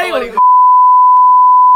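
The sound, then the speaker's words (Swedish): A brief snatch of talking is abruptly cut off by a loud, steady censor beep covering a name, one unbroken high tone holding for over a second to the end. “Du kan pipa.”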